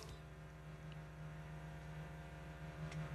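A muffled construction drill grinds somewhere beneath the floor, a steady low droning hum that holds constant for a few seconds, fairly faint and with no one talking.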